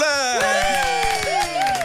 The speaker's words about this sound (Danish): Det er den velkomst, man får her altid. Det kan jeg godt lide. Vi inviterer ikke nogen ind, som ikke er værd at klappe af.